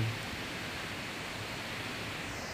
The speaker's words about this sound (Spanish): soltar el control y que fluya, así como el agua fluye, como este río.